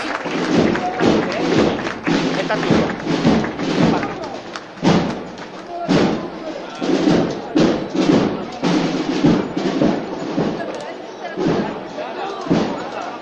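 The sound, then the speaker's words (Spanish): The paso de palio of María Santísima de los Dolores of the Veracruz brotherhood is lifted by its bearers amid a murmuring crowd, with a steady run of heavy, irregular thuds and knocks throughout, and voices chattering underneath. “Escuchamos de una levantada. El paso de palio de María Santísima de, los Dolores.”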